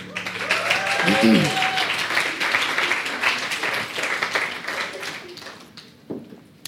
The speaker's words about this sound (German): vielen, vielen Dank. Applaus